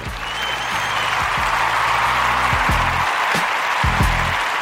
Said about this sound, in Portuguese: Ai, muito obrigada, muito obrigada pelos aplausos.